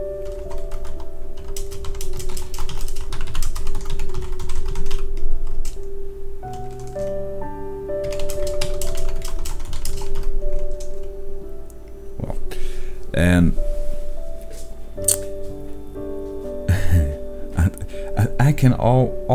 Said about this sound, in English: and I'm typing, and she already uh, would know what that mean if she still have a good memory.